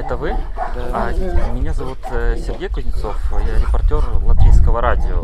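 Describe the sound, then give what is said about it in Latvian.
Two dogs bark repeatedly in short bursts outdoors in the yard of a country house, beneath a steady speaking voice that continues throughout. “Pagalmā divi suņi staigā vistas.”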